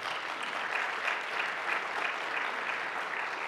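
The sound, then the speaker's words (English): Steady applause from an audience fills the whole stretch, a dense, even wash of many hands clapping at once with no voices breaking through. “And, and while you're clapping,”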